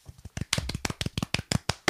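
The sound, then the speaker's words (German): Brief applause: about a dozen sharp, crisp hand claps in a fairly steady, slightly uneven rhythm, moderately loud, with no talking. “Applaus.”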